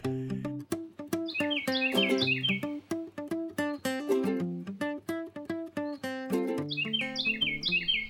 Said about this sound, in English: Was that a, a Carolina wren? Carolina wren. Tea kettle, tea kettle, tea kettle. It's really loud. We should go over there and look.